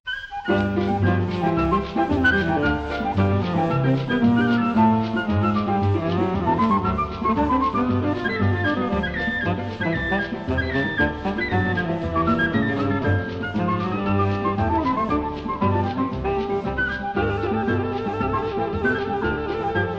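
Lively instrumental choro plays throughout, with a bright melody darting over plucked strings and a steady bouncing bass, loud and continuous with no voices.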